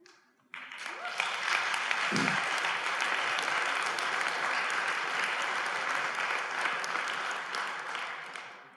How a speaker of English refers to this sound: And as loudly as I hear the claps of hands, I hear even more loudly the hands that are not clapping